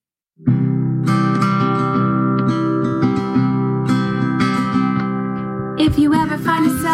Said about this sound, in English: here's … and I singing it together. Let's have a listen.